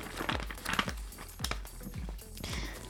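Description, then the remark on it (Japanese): Pages of a dictionary being flipped in a quick series of crisp, rustling swishes, about four or five turns, with no voices. “今度はこの音ですよこれが辞書の音です”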